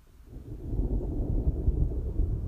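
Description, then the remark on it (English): A deep, rolling rumble of thunder swells up after a brief quiet moment and keeps growling low and steady, with no voices over it. “that was deep thunder.”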